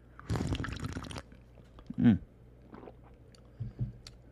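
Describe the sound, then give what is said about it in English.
A loud slurp of iced coffee from a ceramic mug lasts about a second, followed by a brief appreciative hum and a few faint clinks and shuffles. “And uh, in case you're wondering what the slurp was, well, we have a little tradition here.”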